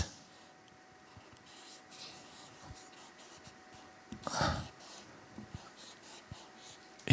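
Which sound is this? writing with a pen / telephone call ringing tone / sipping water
writing with a pen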